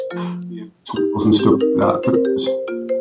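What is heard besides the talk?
mobile phone ringing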